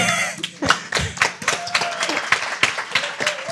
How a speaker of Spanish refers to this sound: Un aplauso.